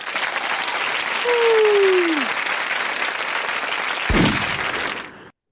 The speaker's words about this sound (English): Make some noise for yourselves at home while I cue up the claps.